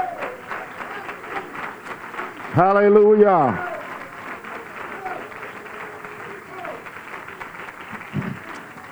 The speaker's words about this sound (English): Can you say amen? If you believe it, give the Lord a good hand clap.